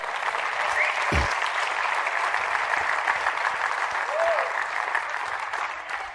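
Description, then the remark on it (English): Steady, sustained applause from an audience in a church fills the whole stretch, a dense wash of many hands clapping at an even level without pause, with a brief low thump early on. “By the way, thank you for clapping.”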